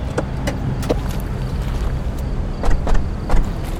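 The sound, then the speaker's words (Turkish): A car's engine rumbles low as the vehicle rolls up in front of a villa and comes to a halt, with a few faint clicks and creaks over the steady drone. “Yeniden arabaya bindik.”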